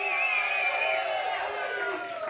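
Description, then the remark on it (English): A rowdy crowd at a Chiefs Kingdom show at 119th and Ridgeview in Olathe cheers and shouts together, a dense wash of excited voices with a few higher whoops rising out of it, loud and continuous throughout. “We are at one of my favorite locations, 119th and Ridgeview in Olathe, with a rowdy, red, real, revved up crowd.”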